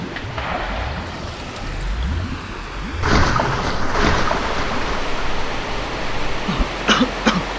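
Rushing river water roars steadily and grows noticeably louder partway through, with a couple of brief sharp splashes or bursts near the end; no one speaks.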